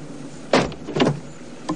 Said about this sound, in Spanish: Se monta en el coche.